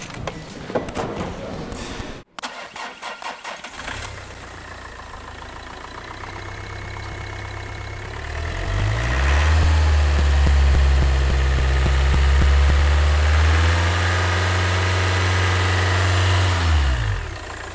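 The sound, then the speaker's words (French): A few clunks and clicks, then a car engine turns over and idles with a low, steady hum before revving louder, pitch rising and falling in drawn-out swells. “On, a bien tous reconnu le bruit de la voiture.”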